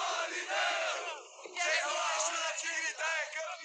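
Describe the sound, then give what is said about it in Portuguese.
A large crowd of Santos football supporters, celebrating a victory over Palmeiras, loudly chants a team song in unison, voices rising and falling in sustained rhythmic phrases that fill the whole stretch. “Você gritou muito esse, esse canto aí da torcida do Santos?”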